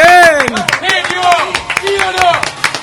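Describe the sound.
A studio audience of the show Hacemos lo que podemos claps steadily in a dense, continuous patter, with loud whooping and cheering voices rising and falling over the applause throughout, welcoming guest Ronnie Arias.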